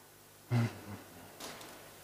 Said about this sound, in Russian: Ничего страшного, что ручка упала. Нормально.